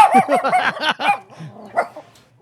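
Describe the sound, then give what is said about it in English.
A dog barks in a rapid, excited burst of about half a dozen loud yaps, then trails off into a few softer, scattered yips and whines. “There he is. That's the dog man right there.”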